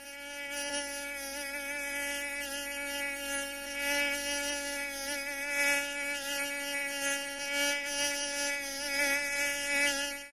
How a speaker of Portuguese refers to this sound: Esse é o áudio do mosquito aí que ele mandou pra gente.